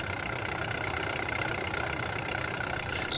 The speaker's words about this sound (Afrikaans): en toe kom daar 'n ou bakkie met ou gladde bande en ou geroeste padwerk verbygery.